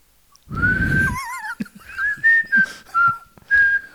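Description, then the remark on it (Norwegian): A person whistles: a sustained tone, a quick warbling trill, then several short rising and falling whistled notes in separate bursts, with some breathy noise at the start. “Eh, kan dere plystre?”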